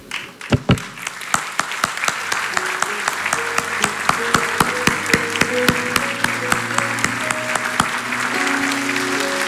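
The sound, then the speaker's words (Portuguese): An audience at the Casa Apostólica Cristo Centro Pirituba church, standing, breaks into sustained applause for those who attended the Café Comunhão, dense and steady, with a few sharper claps standing out and a low musical drone with held tones sounding underneath. “Fique em pé, porque eu quero dar uma salva de palmas pela tua vida.”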